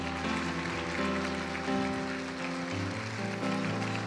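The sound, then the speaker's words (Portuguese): An audience applauds the Lord steadily for several seconds, a dense wash of clapping with sustained keyboard chords playing underneath; no one speaks. “Aplauda o Senhor.”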